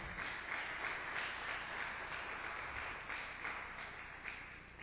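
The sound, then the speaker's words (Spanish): An audience at a church service applauds for the Lord steadily, a dense wash of many hands clapping together at a fairly even level throughout. “Dele un fuerte aplauso al Señor.”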